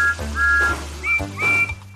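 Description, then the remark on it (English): A station guard blows a whistle in two shrill, steady blasts to signal that the train may leave, the second rising slightly higher, over a continuous low engine-like rumble with no talking. “the guard blew his whistle to let Thomas know it was safe to leave”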